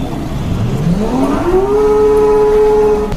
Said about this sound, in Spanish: diferenciar cómo suenan cada uno de los motores de los modelos más emblemáticos de esta marca, que además de tener su sede aquí en Stuttgart